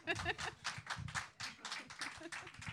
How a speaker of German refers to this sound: das war billiger Applaus, den ich äh, hervorgerufen habe.